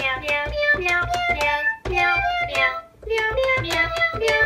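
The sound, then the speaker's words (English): A Cat Keyboard plays a quick, bouncy melody made of sampled cat meows, each note a short, bright mew, looping in a steady rhythm with brief pauses between phrases. “But until next time, we're going to let Cat Keyboard play us out. Meow, meow, meow, meow, meow, meow, meow, meow, meow, meow, meow, meow, meow,”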